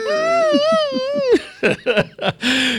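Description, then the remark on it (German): A person makes a long, wavering, high-pitched whine in imitation of a dog, then breaks into short breathy bursts and a brief voiced sound, fairly loud. “Winsel du mal. Kannst du winseln?”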